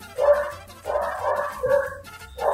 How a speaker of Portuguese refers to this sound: se vocês ouvirem uh, um cachorrinho latindo, ele é o convidado do nosso episódio